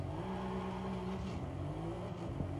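A car engine in a racing game revs and accelerates steadily during a timed acceleration run to 100, about 2.9 seconds; a loud, continuous droning hum with rising harmonic tones, and no one talking.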